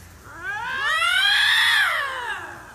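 Two lynxes hiss at each other in a drawn-out, cat-like yowl that swells in pitch and loudness, then slowly falls away. Fairly loud, with no talking.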